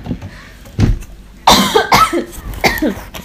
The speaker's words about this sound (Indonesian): Dia batuk.